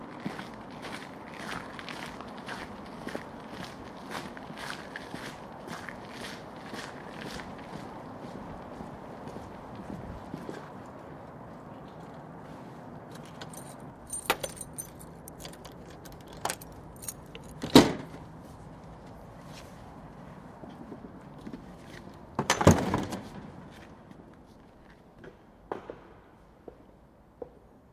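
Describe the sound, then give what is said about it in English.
Steady hard-soled footsteps walk at an even pace into the Chapel of Resurrection in Sweden, then give way to a quieter hush inside the chapel, broken by a few louder knocks and thumps like a door closing. No one speaks. “you, our listener, have to stay out here and listen to Ivan me when we walk into the chapel”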